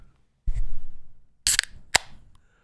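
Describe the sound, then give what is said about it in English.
A fresh, ice-cold can of Diet Dr. Pepper is cracked open in a break room: a dull rustle of handling, then a sharp, bright pop followed moments later by a second short snap, with only a thin, brief trace of fizz. “You can tell by the way, you can tell by the way it pops.”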